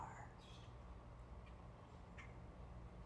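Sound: birds singing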